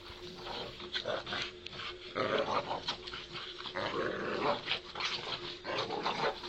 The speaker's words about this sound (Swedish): De här hundarna kämpar och drar i varsin ända av en blå repstump med knutar på. Ingen av dem vill ge upp.